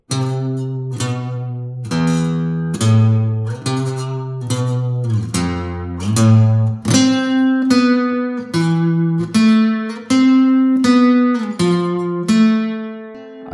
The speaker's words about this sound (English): that transitions here. very neatly into Stannis's theme in general.